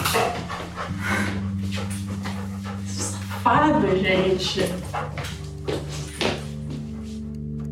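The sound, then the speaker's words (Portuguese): A dog whimpers and gives a few short barks on a bed, mixed in with people talking and a steady musical tone underneath. “A partir daí, os cachorros já estavam por conta da gente. Café já ia dormir no meu quarto na primeira noite.”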